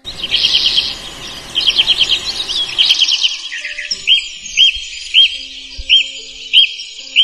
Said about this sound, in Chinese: 我看见喜鹊阿姨站在窝里，一会儿教喜鹊弟弟唱歌，一会儿教他做游戏，一会儿教他们学自己发明的拼音字母。